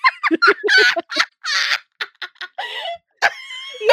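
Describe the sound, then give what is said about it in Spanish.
A rooster crows loud right behind a window in the city, its harsh, strained call broken into a rapid run of short squawking bursts that ends in a longer drawn-out note. “mire, el gallo está justamente atrás de mi, de mi ventana.”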